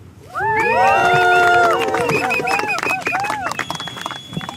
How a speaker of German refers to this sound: Ein scharfer Wind weht an diesem Septembertag. Etwa 50 Menschen sind zum Protestmarsch gekommen. Ein kleines Häuflein.